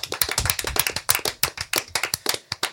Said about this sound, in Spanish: Hasta aquí la sección de Carlos Cabrón Un aplauso para Carlos